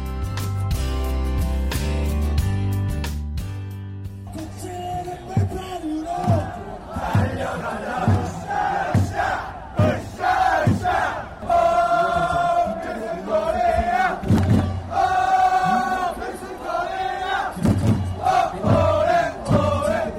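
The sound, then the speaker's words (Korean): A big crowd of Red Devils, the Korean national football team's supporters, chants a World Cup cheer in unison with loud, rhythmic clapping and shouted beats, energetic, after a few seconds of sustained horn-like blaring at the start. “지금 현장 소리 들어보니까 이 붉은 낙마의 열띤 응원 소리를 지금 같은데요.”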